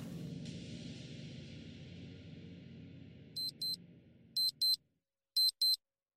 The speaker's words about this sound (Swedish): Klockan sju på morgonen ringer alarmet i bunkern.